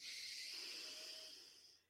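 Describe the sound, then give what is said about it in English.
A long, steady inhalation, an airy hiss lasting nearly two seconds before tapering off, with no talking; a power breath drawn in through the belly, up through the chest and up through the neck. “Let's go ahead and breathe in”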